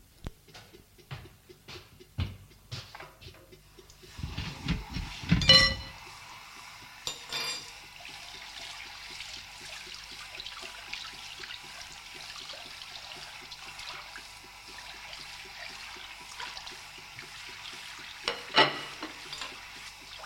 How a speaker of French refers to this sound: Henriette prend les deux bols et les cuillers et va les rincer à l'évier comme elle peut